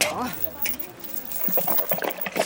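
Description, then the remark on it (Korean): Water is poured into a bowl, a splashy, gurgling stream with scattered drips, after a brief murmur of voices at the start; the bowl of water is for a dog. “아, 저, 물이나 한 사발 담아주세요.”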